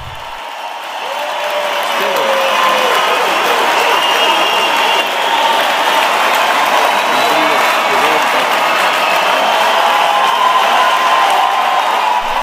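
A large audience bursts into sustained, loud applause with scattered cheers and whoops, building over the first couple of seconds and then holding steady as a dense wash of clapping.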